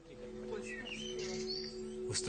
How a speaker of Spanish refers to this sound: Papá está mirando a los pájaros. Mira, están cantando.